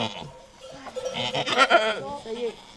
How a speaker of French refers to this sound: Le cri déchirant de cette chèvre à qui on enlève les petits m'a bouleversée.